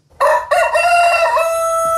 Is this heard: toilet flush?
no